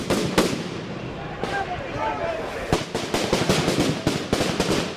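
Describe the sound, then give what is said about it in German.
Sharp firecracker and firework bangs, thrown by hundreds of large, broad-shouldered men into the crowd and police lines at a pride march, burst repeatedly in quick, irregular clusters, some loud cracks standing out over a constant crowd roar, with voices shouting in the background. “Er sieht, wie hunderte große, breitschultrige Typen Feuerwerkskörper werfen in die Menge und in die Reihen der Polizisten.”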